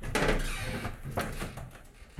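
The door of a graphic arts conservator-restorer's workshop is pushed open, with a creaky scrape and a couple of soft knocks as it swings, followed by a brief settling thud at the end.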